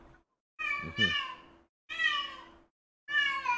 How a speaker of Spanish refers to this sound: ¿Qué pasa? Está full hablando la gata.